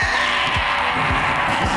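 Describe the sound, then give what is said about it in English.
A loud, continuous roar of racing engines with a high, sustained squealing tone on top, plus a few quick low swoops like cars whipping past. “And gentlemen, start your engine!”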